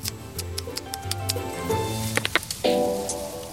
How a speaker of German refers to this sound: Beim Futtern kann man deutlich hören, wie gut es dem Tier schmeckt. Es schmatzt genüsslich vor sich hin.